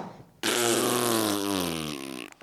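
A single long, loud fart lasting about two seconds, with a buzzy, wavering pitch that slowly drops before cutting off abruptly, with no talking over it.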